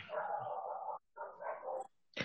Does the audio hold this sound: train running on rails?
no